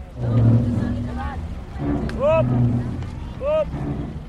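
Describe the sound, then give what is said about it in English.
Garbage trucks idle and rumble at a massive dump site on the outskirts of Manila, Philippines, rolling in to unload Metro Manila's garbage, a low, steady engine drone with repeated high squealing whines rising and falling over it, and faint voices murmuring in the background. “Here, trucks roll in every few minutes to unload garbage from Metro Manila's 12 million residents.”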